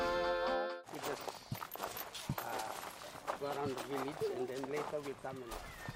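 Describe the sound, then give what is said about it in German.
Footsteps of people walking a few steps to an old well, a series of uneven thuds and scuffs moving along while voices talk over them; a short steady tone sounds at the very start. “… geht mit mir ein paar Schritte und zeigt mir den alten Brunnen.”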